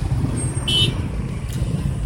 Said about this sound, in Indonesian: ini hujan nih perjalanan macet lagi